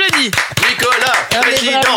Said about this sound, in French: Eh ben bravo, ça eh, eh, s'applaudit, ça ça